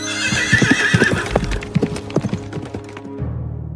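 A horse whinnies loudly while its hooves clip-clop in a steady rhythm; the neighing fades and the hoofbeats continue briefly before a low sustained tone takes over.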